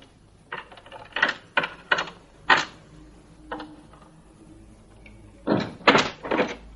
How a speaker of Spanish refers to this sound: Quitaré la llave de la cerradura. ¿No le parece? Fabien se aproxima a la puerta, abre y saca la llave.